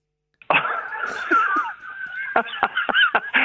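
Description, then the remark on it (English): A dog named Benji barks and yelps in the background during an RTE Radio conversation, first in a drawn-out, strained howl, then in a rapid series of short, sharp barks. No one talks over it. “no, I'm just laughing the fact that dogs on RTE Radio.”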